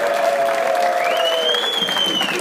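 An audience at the Adam Ritz Show, hosted at Eastern Kentucky University, applauds a guest in a steady, dense wash of clapping that holds at an even level throughout, with a thin high whistle-like tone gliding above the claps.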